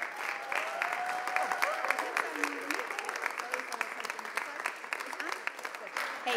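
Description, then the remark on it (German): A standing church audience applauds steadily to welcome a guest pastor, dense clapping filling the whole stretch at an even level, with a few faint voices and a brief tonal whistle or cheer mixed into the crowd noise. “hey, lass uns mal aufstehen und sie mit einem großen Applaus hier begrüßen.”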